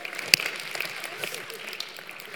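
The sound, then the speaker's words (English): An audience claps in a steady, dense patter of many hands, fairly soft overall, with one sharp louder clap standing out early on and no voices. “We'll start clapping.”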